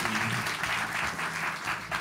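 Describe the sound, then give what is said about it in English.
A crowd applauds to celebrate a man's birthday early, a steady, dense, continuous wash of many hands clapping with slight swells in intensity, fairly loud and sustained throughout with no voices standing out. “We're gonna go ahead and clap it up for him.”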